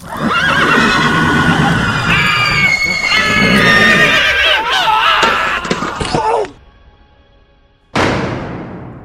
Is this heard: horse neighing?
yes